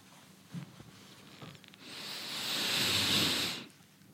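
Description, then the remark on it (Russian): One long, drawn-out sniff of a peaked cap, a steady airy inhale lasting nearly two seconds, preceded by a few faint soft rustles and no talking. “Итак, сейчас я понюхаю.”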